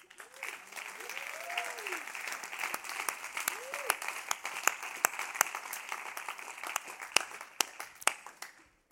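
A crowd applauds steadily for several seconds as a gospel singer is invited onto the stage, a dense wash of clapping with sharper individual claps standing out, while a voice or two calls out briefly underneath before it tapers off.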